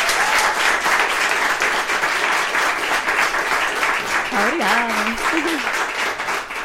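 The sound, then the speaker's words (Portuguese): An audience, asked to show by the intensity of their applause what they think of the conversation, applauds loudly and steadily for several seconds, a dense wash of clapping, with a brief vocal cheer or whoop rising above it near the end. “Por intensidade de aplauso, façam-nos ouvir.”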